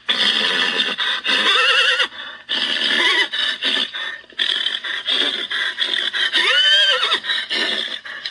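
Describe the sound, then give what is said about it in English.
A horse whinnies and neighs repeatedly, loud, with shrill rising-and-falling calls separated by brief pauses, plus some scraping and snorting sounds in between. “And now I leave you with 10 hours of horse noises.”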